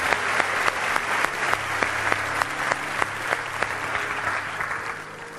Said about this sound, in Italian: E infatti, eccomi qua. Applauso.